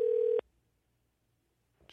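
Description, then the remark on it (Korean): A steady electronic ringback tone from an outgoing phone call cuts off after a moment, followed by quiet and then a brief click-like noise near the end. No voices. “전화 가요”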